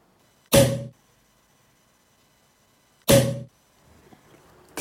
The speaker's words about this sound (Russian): Звук открытия бутылки. Вот мне интересно, в каком классе совершается открытие бутылки. Ну давайте послушаем.